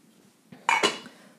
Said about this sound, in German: Nehme jetzt das gleiche Heferl und fülle das zweimal mit Wasser auf. Bis fast ganz oben hin. Gehe zum Topf, mein mittelgroßer Topf, nehme den Deckel ab und gebe das Wasser in den Topf.